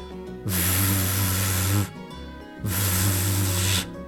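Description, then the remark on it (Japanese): A voice makes two long, buzzing "vvv" sounds, a voiced consonant with a low hum under a breathy hiss. They are steady, separated by a short pause, with no other talk. This is the V sound, the voiced pair of F, made with the lips trembling. “こういう唇がこうブルブルブルっていうふうに震える音になります”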